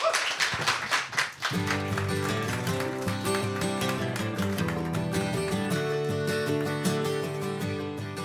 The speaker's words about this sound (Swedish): Tusen tack, applåd!